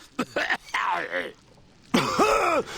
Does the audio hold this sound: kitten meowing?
no